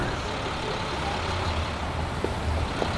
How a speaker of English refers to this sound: a lo fi soundscape is harsher, denser, and filled with packed and competing frequencies. And for Schafer, these are closer to the sounds associated with cities, traffic, and transit, stuff like that.